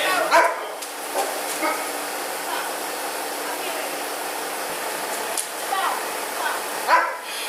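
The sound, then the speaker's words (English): A shepherd dog gives scattered barks and whimpers in short bursts, louder near the start and end, over a steady rushing background noise with faint voices in the mix. “Oh, that's my shepherd.”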